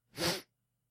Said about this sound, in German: Er schniefte einmal.